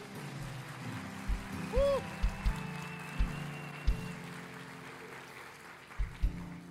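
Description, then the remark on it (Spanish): A church audience applauds with joy at the preacher's call, in a steady, fairly soft wash of clapping, broken by a few heavy low thumps, with no one speaking over it. “Los que lo crean, den un aplauso con alegría.”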